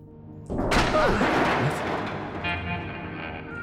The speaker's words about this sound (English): Doors open.